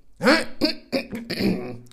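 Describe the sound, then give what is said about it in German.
A man clears his throat again in a quick run of four short, voiced "ahem"-like bursts, fairly loud, with no other talking around it. “er räusperte sich wieder.”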